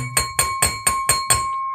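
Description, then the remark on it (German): A spoon taps a champagne glass, used in place of a bell, six times in a quick, steady rhythm, each clink bright and high-pitched, with a clear glassy ring that carries through and lingers after the last tap. “Deswegen haben wir jetzt ein Sektglas und einen Löffel.”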